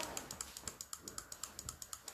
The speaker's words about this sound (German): Hört ihr das Klicken? Ich bin voll am Durchklicken. Am Durchdrehen.